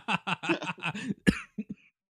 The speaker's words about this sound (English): can you hear me? Through, you can hear me coughing. Yeah, you got my cold like through the podcast.